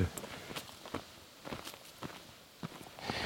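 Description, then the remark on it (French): Steady footsteps crunch along an outdoor path as walkers enter the small Taiga trail, several even strides in a walking rhythm with faint rustling of ground cover between them, no voices. “Et voilà, là, on entre dans le petit sentier de la Taïga. On va marcher un petit bout, ça va être moins chaud, ici”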